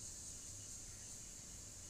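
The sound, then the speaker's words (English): Periodical cicadas, which emerge every 17 years, buzz in cicada season in a steady, high-pitched drone that holds unbroken for the whole moment, soft, with no voices over it. “It is officially cicada season.”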